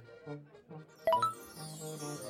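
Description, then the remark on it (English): A prize wheel sound effect plays: a soft, tinkling jingle rises into a bright, ringing ding partway through, then chiming tones trail off. Moderately loud, with no talking. “spin the wheel and see what we get.”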